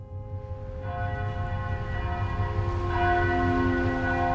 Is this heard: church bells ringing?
yes